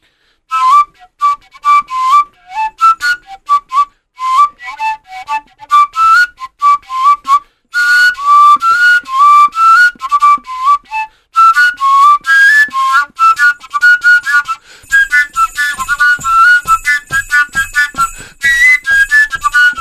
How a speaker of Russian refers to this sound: Колокольчики слышны были, да? Колокольчики слышны были, да? Здорово. Да. На ногах у него тоже колокольчики. Да, и колокольчики, а еще на руках бывает.